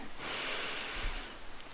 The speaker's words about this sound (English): well it's sort of like this i'm breathing it's like okay breathe in